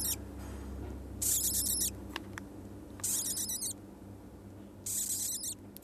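A newly hatched chick named Joppe, in Tromsø, whimpers contentedly in three short bursts of high, thin, trilling squeaks, each lasting under a second and separated by quiet pauses over a low, steady background hum.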